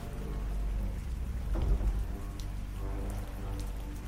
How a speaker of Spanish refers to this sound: El clima no cesaba y la lluvia mermaba toda visibilidad.